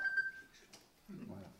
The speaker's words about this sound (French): Je suis désolé, c'est mon téléphone.